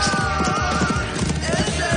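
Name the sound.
horse hooves galloping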